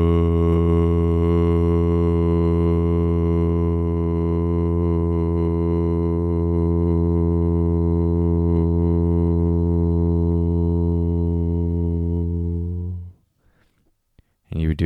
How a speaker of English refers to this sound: So we'll take a, a deep breath in through the nose, breathing in, and then just chanting VU. VU.